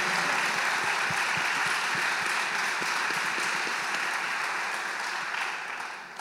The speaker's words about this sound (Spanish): Le damos un aplauso a Él. ¿Qué tal si damos un fuerte aplauso al Espíritu Santo?